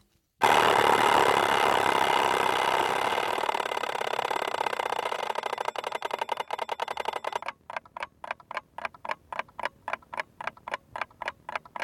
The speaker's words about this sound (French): mesdames et messieurs, nous sommes ici en présence du temps, représenté par un appareil mécanique qui s'appelle réveil.